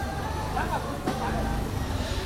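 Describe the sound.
Steady outdoor street noise in Dharamsala with a low rumble of passing traffic and indistinct voices chattering in the background, continuous throughout.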